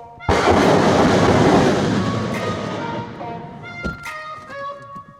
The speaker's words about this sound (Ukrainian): Це попереду нашої автівки працюють гради, наче постоявши в заторі, перечікуємо і їдемо далі.